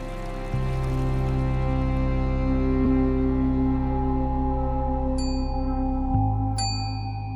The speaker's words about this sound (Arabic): أجراس الإعلان عن بدء مراسم الجنازة في المعبد تدق الآن